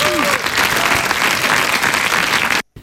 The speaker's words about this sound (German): Einen Applaus.